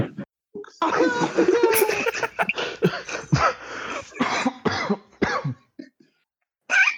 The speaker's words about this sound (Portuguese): Eu gosto que a tosse não corta. não, isso foi eu.